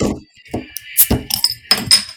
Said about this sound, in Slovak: No aj vždycky sa zľaknem toho tvojho uh, otváraka